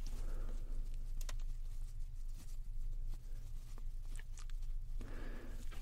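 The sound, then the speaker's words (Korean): Soft brushing strokes sweep lightly across the face to brush off cut hair after a haircut, a series of gentle swishes and faint taps over a steady low background hum, with no one talking. “음, 얼굴에 머리 묻은 거를 털어드릴게요.”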